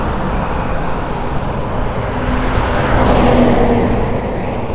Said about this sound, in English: There's been, whoa, truck.